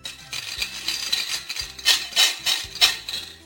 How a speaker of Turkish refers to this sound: Kağıt paralar sessizdir bu konuda. Kağıt para dolu kumbarada daha çok işe yarar elbette. Fakat açıkçası pek de eğlenceli değildir. Halbuki bozuk para kumbaralarını sallaya sallaya ritim tutmak ne kadar da keyifli.